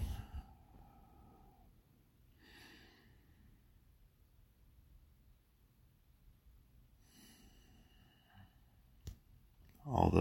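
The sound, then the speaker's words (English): Slow, deep breaths drawn in and released in a breathing exercise, a long airy inhale and exhale separated by quiet pauses, with a brief click and a louder rustle at the end. “And so let's do some breathing.”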